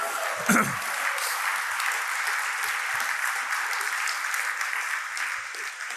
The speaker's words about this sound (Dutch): Als je het gelooft, kom op. Geef God een applaus. Halleluja.